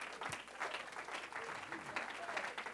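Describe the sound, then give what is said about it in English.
An audience claps hands in praise to the Lord, a dense, continuous wash of applause for a few seconds, with faint voices mixed underneath. “In Jesus' name, why don't you give the Lord another great hand clap of praise?”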